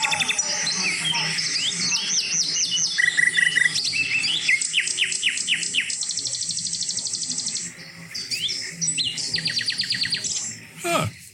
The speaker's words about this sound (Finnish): Mutta sitten tosiaan kuuntelin tällaista satakielen laulaa pikkuhetken.